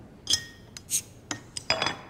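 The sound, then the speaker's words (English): Several bright clinks of beer glasses in a toast ring out in quick succession, a few close together near the end, with a faint clatter between them and no voices. “Cheers.”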